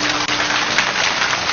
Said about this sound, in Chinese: 来，我们掌声送给李昌钰博士的爱人。